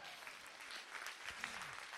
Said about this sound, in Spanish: Alguien lo recibe, le da un aplauso al Señor.